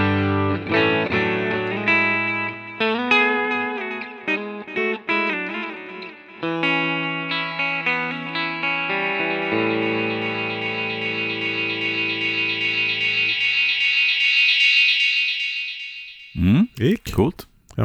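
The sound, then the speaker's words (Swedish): Repeating guitar-like tones pile up through a delay pedal set to its digital mode and swell into a sustained, rising, self-oscillating feedback whine. It grows loud and steady, then cuts off into a few choppy bursts. “Det står att man ska kunna oscillera den, det ska vi testa.”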